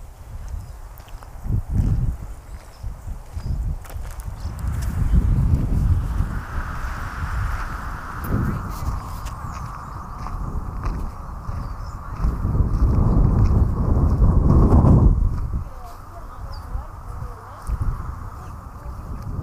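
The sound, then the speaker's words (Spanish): Open-air ambience in the Parque Nativo, Potrero de los Funes, San Luis, Argentina, with steady wind rumble, scattered footsteps or hoof-like clops, sounds of small birds and a faint mid-pitched tone drifting in the background; no clear voices. “Ahora sí, me despido, dejando unos segundos de sonido de ambiente donde estoy en este momento, que es en el Parque Nativo, en Potrero de los Funes, San Luis, Argentina, en este momento grabando este podcast que es al aire libre.”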